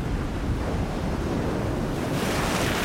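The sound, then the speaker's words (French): Rough, stormy ocean surf crashes in a continuous, loud roar, with gusting wind buffeting throughout and a brighter surge of spray near the end. “Le tonnerre gronda et un chaos de vagues se déchaîna.”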